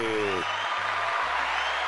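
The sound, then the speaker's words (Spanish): An audience applauds in tribute to a band leader, a steady, dense, even wash of clapping filling the whole clip at a consistent loudness, with a low voice briefly audible underneath at the start. “Aplauso al caballote.”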